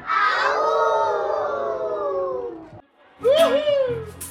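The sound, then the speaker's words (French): Several voices imitate wolves together in a musical storytelling performance for young children: one long wavering howl drawn out for nearly three seconds, a short pause, then a second rising-and-falling howl over a murmur of a small group. “Et les loups, le matin, le midi, le soir et la nuit, ils hurlent au vent et les loups font”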